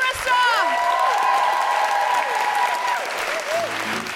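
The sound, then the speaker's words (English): A loud, sustained burst of audience applause for the guest co-host Margaret Cabourn-Smith, dense steady clapping mixed with whoops and high-pitched cheers rising and falling over it. “And uh, can I have a big round of applause for my guest co host, Margaret Cabourn-Smith?”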